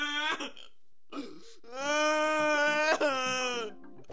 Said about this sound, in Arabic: مين عم يبكي؟